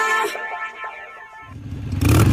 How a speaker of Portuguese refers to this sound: Última acelerada. Motoristas que têm esse hábito antes de desligar o carro não sabem que isso só serve para desperdiçar combustível e aumentar as chances de danificar o motor.